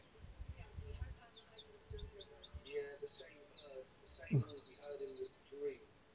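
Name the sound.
birds chirping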